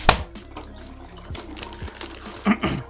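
A steady trickling stream of liquid, like a man urinating, with a sharp splash at the start and a couple of louder splashy bursts near the end; no one speaks.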